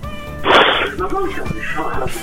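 A cat meows, starting with a harsh, breathy burst and then stretching into wavering, drawn-out meows that rise and fall in pitch, fairly loud throughout.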